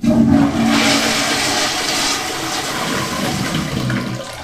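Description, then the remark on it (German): A toilet flushes loudly, a steady rushing gush of water with a low gurgle underneath that holds for several seconds without easing off. No one speaks. “Die, also jetzt nicht von der Spülung her, ja, sondern die Schüssel.”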